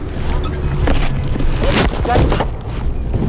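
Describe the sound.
A car engine hums steadily from inside a dented white station wagon as it drives, a continuous low rumble with road noise that holds an even loudness throughout, with faint voice-like sounds mixed in.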